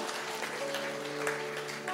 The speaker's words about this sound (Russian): Выходите, не стесняйтесь, слава Богу. Аплодисмент еще.